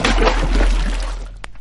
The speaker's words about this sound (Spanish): El hijo del molinero halló un acento tan convincente en la voz del gato que, sin preguntar más, se despojó de todas sus ropas y se tiró al agua.